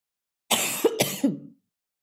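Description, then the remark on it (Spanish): Two quick, harsh coughs in quick succession, loud, with a rough throaty edge like clearing the throat, followed by silence. “Debe haber como mucho polvo en el ambiente porque yo no dejo de toser.”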